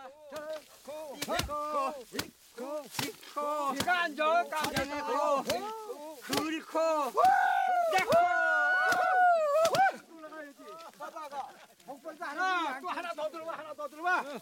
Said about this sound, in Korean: 가로 눕힌 통나무에 벼단을 내리쳐 나다를 떨어냅니다.